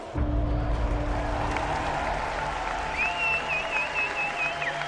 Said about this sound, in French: Sous les cris et les applaudissements du public, les deux hommes entrent sur le ring et se font face.